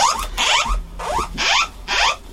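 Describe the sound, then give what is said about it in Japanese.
A loud earthquake early warning emergency alert tone repeats in five quick, harsh electronic bursts of sweeping pitches, with no one speaking. “多分これ地震の、はい、緊急速報かな。”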